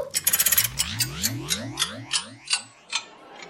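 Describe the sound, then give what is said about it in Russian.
A rapid run of mechanical clicks and ticks, fast at first and then slowing to spaced ticks, as the hands of a clock are turned forward, with a ringing metallic whir beneath. No voices. “Сейчас часы немного переведу.”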